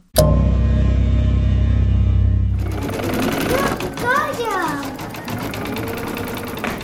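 An embroidery machine whirs loudly and steadily for a few seconds, then falls away, leaving a child's high squeals and chatter amid light clatter close by.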